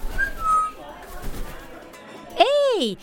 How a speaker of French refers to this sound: Un perroquet J'ai l'impression qu'il veut que je le suive.